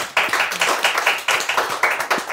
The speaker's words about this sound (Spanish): Les están aplaudiendo, niñas.